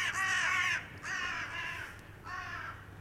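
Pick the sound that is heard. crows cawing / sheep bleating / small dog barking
crows cawing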